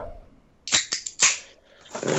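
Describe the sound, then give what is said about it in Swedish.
A few sharp, clattering bursts of empty deposit cans knocking together, then a longer rustling rattle as the cans shift about, moderately loud, with no one speaking. “Massa burkar som skramlar.”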